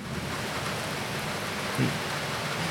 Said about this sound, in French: aujourd'hui je suis très content de vous faire cet épisode un peu spécial avec euh, en invité spécial aujourd'hui, euh, l'orage. Comment vas-tu